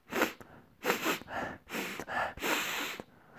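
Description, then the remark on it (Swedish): A voice imitates a woman repeatedly sniffing a wet wipe held up to her nose after wiping her fingers with it, several long, breathy inhalations through the nose in quick succession, moderately loud with no talking. “står och sniffar. Lite för länge.”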